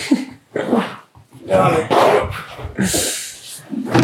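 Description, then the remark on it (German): A dog whines and yelps in short, agitated bursts, with a few sharper barks mixed in, fairly loud over about four seconds; a person's voice comes through intermittently underneath. “Der Hund nervt, wir müssen geh mal ab.”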